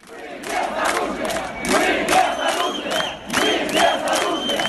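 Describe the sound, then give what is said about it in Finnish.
A large protest crowd chants "We have no weapons" in loud, rhythmic bursts, many voices shouting together in repeated surges with brief dips between them. “Meillä ei ole aseita, huutavat mielenosoittajat opposition toisen kärkihahmon Lyubov Sobolin Twitterissä jakamalla videolla.”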